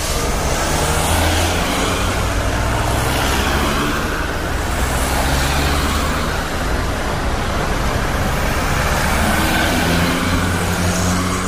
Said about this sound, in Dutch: Ja, denk je aan zakelijke mobiliteit, dan is dit toch wel het geluid wat daarbij hoort. Mensen in hun auto, op weg naar kantoor, een klant of naar huis.